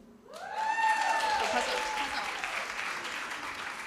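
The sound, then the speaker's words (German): An audience breaks into applause after a brief silence, clapping to show who has beer, a dense, steady wash of clapping that holds to the end, with a few rising vocal whoops at the start. “Wer hat denn alle, einmal klatschen, wer hat alles Bier?”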